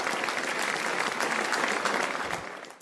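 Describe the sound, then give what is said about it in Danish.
Steady, dense applause from a group of people, a continuous crackle of many hands clapping at even loudness for a few seconds before tapering slightly at the end. “Stor bifald herfra.”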